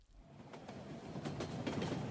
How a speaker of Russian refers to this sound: Между тем поезд все шел.